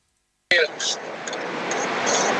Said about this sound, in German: ich höre dich leider nicht so gut. Es ist eine sehr laute Straße bei dir.